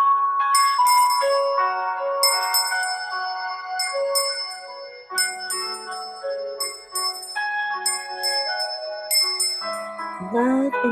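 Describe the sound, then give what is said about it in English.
Bells ring again and again in a steady cascade of bright, shimmering strikes, their ringing tones overlapping and lingering before a soft voice-like sound enters at the very end. “Every time you hear the bell ring, your heart is beating with love and light.”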